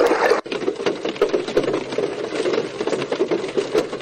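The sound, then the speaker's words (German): Heavy raindrops patter on a roof in a dense, steady stream of irregular taps and splats, with a brief drop in the sound near the start before the drumming resumes. “Ähm, es soll, glaube ich, Regen sein, was auf einem Dach tropft. Also richtig dicke Tropfen.”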